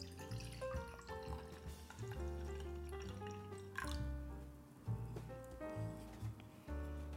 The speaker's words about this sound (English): Um, we're gonna make good use of it today. Uh, let me just pour this wine.